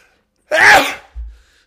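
A single sharp sneeze bursts out close to the mic, followed by a brief low thump or sniff as it settles. No talking accompanies it.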